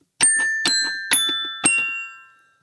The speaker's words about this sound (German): Der Gerät steht hinter mir. Der Gerät ist ein, ein, ein äh, kleines äh, Kinder. Bing Bong. Ist ein, ja, ein Kinderxylophon-Metall-Plättchen-Klangerzeugungsgerät. Äh, äh, Und das klingt so.